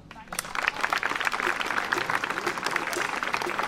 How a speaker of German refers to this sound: Ich denke, nochmal ein kleiner Applaus für sie.